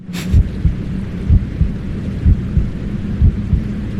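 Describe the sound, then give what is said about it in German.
A muffled heartbeat recorded from inside the womb: deep, steady double thumps about once a second, over a constant low, watery whooshing rumble. No one speaks. “hat Aufnahmen, wie es damals, als … noch in ihrem Bauch war, geklungen”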